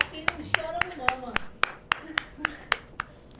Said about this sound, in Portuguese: Eu só tô batendo palmas, desde vezes eh, faz cinco minutos que eu tô batendo palmas.